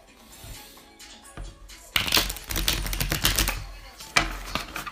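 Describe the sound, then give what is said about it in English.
A deck of cards being shuffled: a quiet start, then a few seconds of rapid, crisp papery flutter and clicking, with a sharp burst near the end. “Cut the deck three times.”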